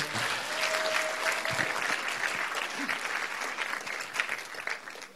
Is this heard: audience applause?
yes